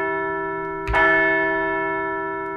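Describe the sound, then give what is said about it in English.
A single loud bell strike, rung to mark a Major League baseball team's first win of the 2023 season, rings out with a sharp attack, then its bright, sustained tone hums on and slowly fades. No voices are heard. “So let's shove aside Monday's loss, number 11,191, and we are going to ring the bell for win number one of the 2023 season.”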